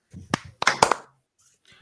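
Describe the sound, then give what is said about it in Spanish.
A few sharp hand claps ring out in a quick, uneven burst, applause for Pedro Castillo, mixed with a voice talking over them, then trail off into quiet. “Un aplauso por Pedro Castillo.”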